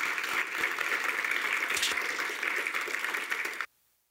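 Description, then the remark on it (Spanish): An audience breaks into sustained applause for the King of Kings, a dense steady wash of many hands clapping at full volume for about three and a half seconds before it cuts off abruptly into silence. “¿Por qué no le das un aplauso al Rey de Reyes?”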